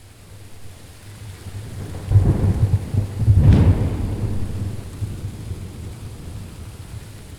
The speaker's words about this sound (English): Is there anything more awe inspiring than a storm? To see the angry clouds spit lightning, to hear the appalling crash of thunder, so loud your eardrums buzz,